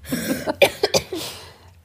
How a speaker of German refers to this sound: Boah, Leute, ich bin krank. Ich entschuldige mich schon mal, falls ich hier ins Telefon husten muss.